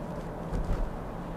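Steady, muffled low rumble of a car interior on the move, a constant engine and road drone with a slight swell midway and no voices.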